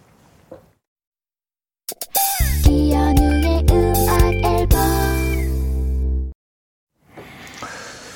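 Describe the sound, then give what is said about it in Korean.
A loud snippet of a pop song, played as a hint for a radio quiz, plays for about four seconds, with dense sustained instruments and a strong bass, then cuts off abruptly into quiet, followed by faint rustling noise. “이 놀이를 적극 추천하기 위해 탄생한 노래.”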